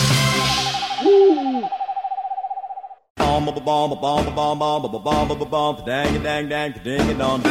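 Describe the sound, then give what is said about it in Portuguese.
A short intro jingle: an owl-like hoot over a sustained tone, then a brief gap before loud, bouncy rhythmic music with steady beats. No one speaks. “solta a vinheta tradicional aí do Coruja Shorts”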